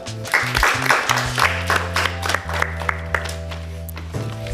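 An audience applauds with steady, dense clapping that lasts the whole few seconds, over sustained low musical notes that shift pitch partway through.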